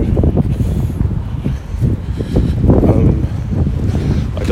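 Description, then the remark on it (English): Heavy wind on a very windy day buffeting a microphone, a continuous low rumbling roar with gusty surges and rustling bursts, loud, with no voices. “It's very windy today.”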